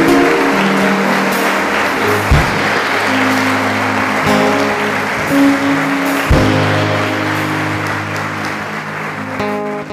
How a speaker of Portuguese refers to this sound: Em nome de Cristo Jesus, se você crê nisso, aplaude o Senhor.